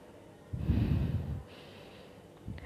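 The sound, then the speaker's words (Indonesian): A single deep, audible breath drawn in before reciting: a rushing second-long inhale followed by a softer, airy tail, with no talking. “kita tarik nafas dulu”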